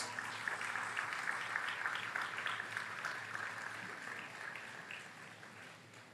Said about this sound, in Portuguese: Você pode levantar suas mãos e aplaudir a Jesus por isso, meus irmãos?